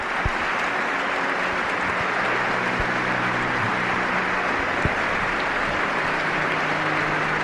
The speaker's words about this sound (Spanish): Momento muy especial frente a los hermanos sacerdotes de la diócesis. Suben los decibelios de esos aplausos.